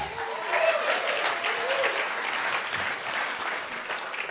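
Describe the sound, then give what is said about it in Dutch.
Sustained audience applause fills the whole stretch, a dense steady patter of many hands clapping at once, fairly loud, with no voices standing out above it. “Oké, laten we deze mensen even een geweldig applaus geven.”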